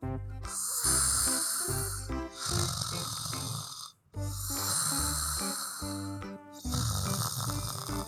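Loud, rhythmic snoring of Joey, a young kangaroo sleeping under a eucalyptus tree: four long, rasping breaths in a steady cycle, separated by brief pauses, with no talking.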